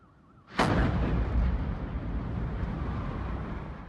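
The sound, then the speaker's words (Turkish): A massive gas tanker explosion erupts suddenly at a gas filling plant in Nairobi, Kenya, after a quiet moment, followed by a long, loud, rumbling roar that continues without letting up. No one speaks. “Dolum tesisinde gaz tankeri böyle patladı.”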